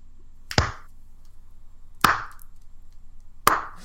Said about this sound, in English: Powering through the slow clap.